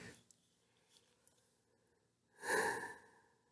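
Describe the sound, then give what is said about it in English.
A person yawns while opening a recording: after a quiet moment, a single breathy yawn swells up with a drawn-out voiced groan that rises and fades over about a second. “As I yawn to open this, because that's not rude.”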